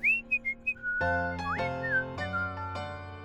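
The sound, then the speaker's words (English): A man whistles a short, lilting tune, the bright notes rising and falling clearly, while a steady sustained musical drone swells in beneath the melody after the first second. “Patrick dwelled on the matter until he was interrupted by the sound of whistling.”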